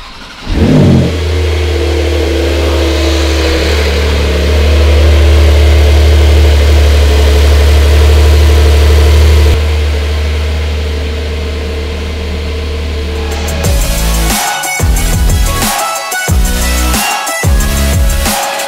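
A Porsche 911 engine cranks and fires up, then holds a loud, steady low rumble at idle before fading into rougher, uneven revving near the end. No one speaks.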